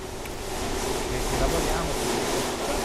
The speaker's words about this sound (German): Das ist der typische Sound Carraras, das Diamantgatter. Eine wuchtige Sägemaschine, die aus einem Hubrahmen und einer riesigen Gattersäge mit Diamantblättern besteht. Mit einem Wagen wird ein Marmorblock in den Rahmen hineingeschoben.